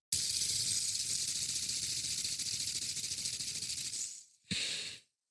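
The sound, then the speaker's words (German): A ball bearing with a slight imbalance, set spinning by a single push and held up to the microphone, spins with a steady, airy whirring hiss and a faint, rapid wobble in the tone, running for about four seconds before stopping abruptly, then a brief second burst. No talking. “ich höre das Kugellager im Hintergrund.”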